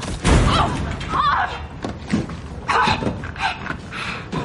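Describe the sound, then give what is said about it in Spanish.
Eric shoots a neurostimulator dart at Molly, followed by the heavy thud of her body hitting the floor, then scattered softer bumps and shuffling movement, with no one speaking. “Eric dispara un dardo a Molly que cae al suelo.”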